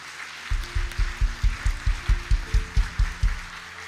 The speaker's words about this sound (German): Gib mir mal allen Applaus, die sich einfach jetzt entschieden haben.